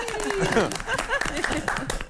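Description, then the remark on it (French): A short burst of applause, dense clapping throughout, with voices cheering and laughing over it and a falling tone near the start. “On met applaudir et on souhaite très vite qu'elle reparte en vacances pour revenir avec plein de bonnes idées.”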